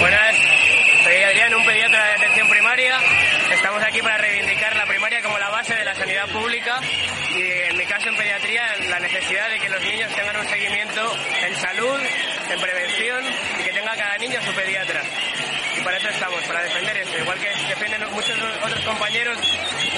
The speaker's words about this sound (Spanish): Suena el sonido muy fuerte entre pitos y tal, pero es lo que se ha vivido en la, en la calle.